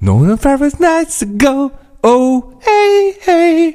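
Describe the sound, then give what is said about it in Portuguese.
A man sings a short, generic pop-style melody in mock gibberish lyrics, with sustained, melodic vocal phrases broken by brief pauses, loud, imitating a typical pop song. “E portanto, não, eu não consigo perceber a diferença entre aquela e todas as outras que eu acabei de ouvir, que soam mais ou menos assim.”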